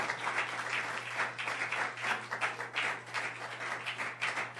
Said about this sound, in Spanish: Aplauda, hermano, aplauda, dele gloria a Dios, hermano, dele gloria a Dios, hermano.